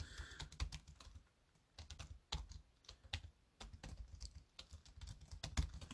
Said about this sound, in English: Let's see if I can find his name. More typing.